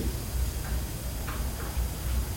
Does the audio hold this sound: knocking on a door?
no